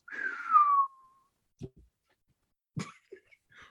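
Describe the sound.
A voice imitates an incoming drone with a brief, descending whistle-like sweep lasting under a second, followed by quiet breaths and a few soft mouth noises.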